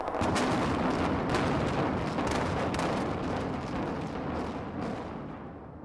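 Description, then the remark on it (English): A dense, roaring barrage of blasts and sharp crackling pops from the 2007 demolition of the Stardust in Las Vegas, with fireworks and a countdown, loud and continuous with no voices, gradually thinning and fading toward the end. “The Stardust was demolished in 2007 in true Las Vegas style, with fireworks and a countdown.”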